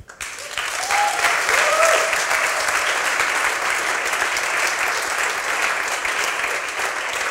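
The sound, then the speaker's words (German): Sustained audience applause for a woman about to tell her story on stage, a dense wash of many hands clapping steadily for several seconds at fairly even loudness, with a few faint voices rising briefly within it. “das ist, war dein Applaus.”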